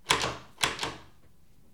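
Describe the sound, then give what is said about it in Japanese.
A few sharp thumps on a door, fairly loud, landing in a quick rhythmic pattern with short pauses between them, knocking along to the beat of a clapping song. “ドアさんあなたなかなか上手よ”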